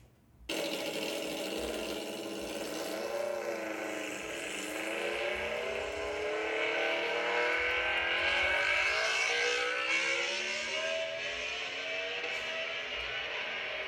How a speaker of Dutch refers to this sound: ja, maar, maar een, een Aprilia, een V4 dus. Ja. Even, even voor toelichting, dit is een RSV4.